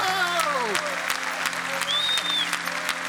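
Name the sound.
audience cheering and applauding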